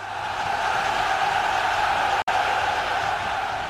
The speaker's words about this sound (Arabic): اذا يبدو ان الجمهور يتفاعل مع قيام اللاعب الشاب ستارت اب تونيزي بالحركات الاحمائيه